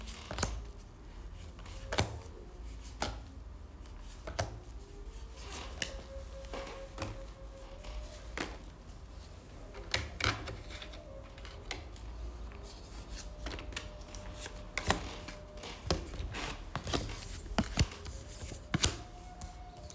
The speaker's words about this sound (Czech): A já už se dívám na vaši fotku, míchám u toho karty